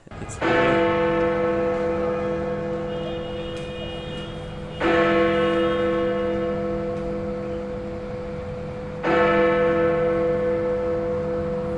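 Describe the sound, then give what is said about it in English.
Big Ben's deep clock bell bongs three times at slow, even intervals, each strike loud and rich with harmonics, ringing out and slowly fading before the next, sounding its final bongs before a four-year silence. “Big Ben's four year silence brings British MPs to tears as they bow their heads for his final bong.”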